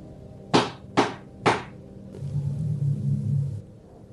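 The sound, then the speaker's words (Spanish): Three firm, evenly spaced, sharp knocks on the outside of a wooden bedroom door, followed by a low, steady rumble that swells briefly and then fades out. “volvieron a tocar.”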